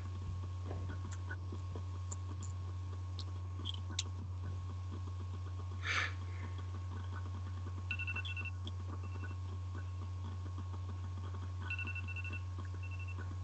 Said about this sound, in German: Wie ihr vielleicht hört, ist der Timer abgelaufen.